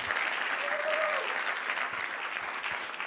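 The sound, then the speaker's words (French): Steady audience applause thanking a team for their work, a dense wash of many hands clapping at an even level throughout, with a brief faint whistle-like tone rising in the middle. “je voulais profiter de l'occasion pour vous remercier et je pense qu'on peut les applaudir quand même une fois.”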